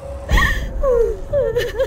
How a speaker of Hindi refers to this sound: इस बार अलमारी को खोलने की जरूरत नहीं पड़ी अलमारी का दरवाजा सबकी आंखों के सामने खुद ब खुद खुल गया और किसी के रोने की आवाज सुनाई दी